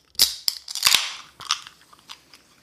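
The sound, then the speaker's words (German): Drinking glasses clink together in a toast: a handful of quick, bright chimes, bunched near the start and then a few lighter taps trailing off, with no one talking. “Aber hey, lass uns doch mal anstoßen. Wir haben doch wieder was zu trinken hier.”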